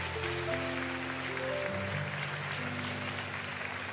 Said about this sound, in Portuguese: Aplaude Jesus, é para aplaudir ele, aplaude ele.